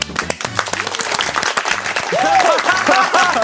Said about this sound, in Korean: 박수 소리 뭐야? 감사합니다.